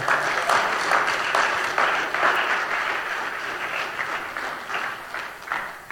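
Sustained applause from an audience fills the whole stretch, dense and steady with many hands clapping at once, loud and close, gradually easing slightly toward the end.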